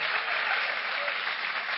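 A church audience bursts into steady, dense applause, many hands clapping together in a continuous, even roar that holds at the same loudness throughout. The audience is applauding the Lord for the life of a woman who has just had surgery for intestinal cancer.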